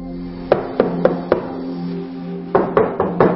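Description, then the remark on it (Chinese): Police knocking on a suspect's home door, which went on for about forty to fifty minutes, in two sets of four firm, evenly spaced raps separated by a short pause, over a low steady hum. No one speaks. “然后后来我们就接着敲门，敲到一直敲到后来，大概敲了四五十分钟，他才把从梦中敲醒，才把门打开。”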